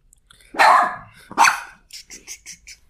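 A dog lets out two loud, sharp barks, then a quick run of five softer, higher yips trailing off. No one speaks.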